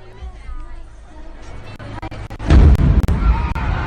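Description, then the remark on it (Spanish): Crowd chatter fills the Manchester Arena, which holds a thousand spectators, at the end of a pop concert, then a loud, booming explosion erupts near the end, followed by sharp cracks and a roaring wash of noise as the crowd panics. “Escuchemos el momento preciso de la explosión en el Manchester Arena con capacidad para mil espectadores y el pánico colectivo desde luego eh, se escucha en esta grabación.”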